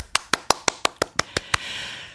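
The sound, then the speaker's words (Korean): About nine crisp hand claps in a quick, even rhythm, fairly loud, followed by a brief wash of soft background noise with no voices. The clapping is applause congratulating someone. “박수.”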